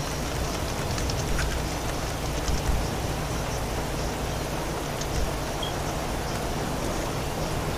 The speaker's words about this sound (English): The rain so clear. Oh, it's awesome.